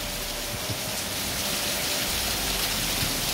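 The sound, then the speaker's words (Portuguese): Heavy rain pours down in a steady, dense hiss, growing heavier, with scattered drops pattering on a surface and no voices present. “E a chuva engrossou agora.”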